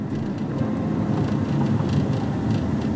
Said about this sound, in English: this is this is where I'm like regretting it because of this shit. Because I'm I'm unnecessarily out in this traffic